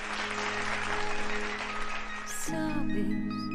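Steady applause fills the first two and a half seconds, then a song recording kicks in with sustained melodic instruments as the clapping fades beneath the music.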